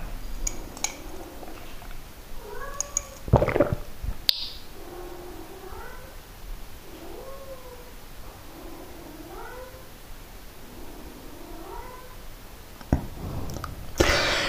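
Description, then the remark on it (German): Several cats meow repeatedly in a steady series of rising, whiny calls, with occasional clinks of dishes or cutlery between them and no talking. “Ich glaube, ich werde den Katzen gleich mal was zu fressen geben, nämlich Nassfutter, dann ist ja erstmal Ruhe.”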